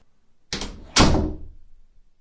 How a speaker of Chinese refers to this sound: 邻居没好气的白他一眼。不等简浩再说什么，砰的一声关上了门。